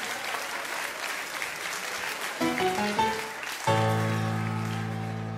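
An audience applauds two triangle players with dense, steady clapping; midway a few short musical notes sound, then a sustained chord rings out over the continuing applause.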